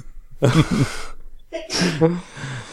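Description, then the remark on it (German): A sudden, forceful sneeze bursts out, followed moments later by another loud, breathy vocal burst. “Gesundheit, ….”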